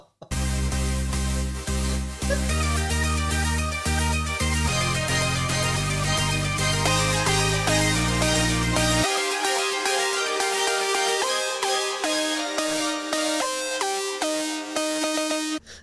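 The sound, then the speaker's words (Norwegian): A short instrumental jingle plays loud, bass-heavy chords stepping along for the first half before the low end drops away, leaving a brighter synth melody. Nobody speaks. “Men, men det var en fin gyngel før det.”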